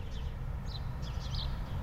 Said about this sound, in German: Ich lausche gerade mal aus meinem Wohnzimmerfenster. Die Vögel im Garten, im Hintergrund rauscht die Straße